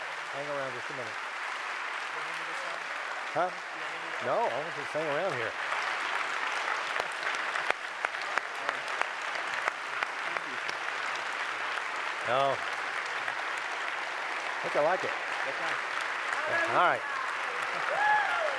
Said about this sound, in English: I, I assume that's a delayed applause for the first part of my message.